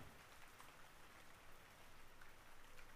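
Steady, gentle rain patters softly and evenly, a continuous hiss of drops spread across the background with no voices and no breaks in the sound.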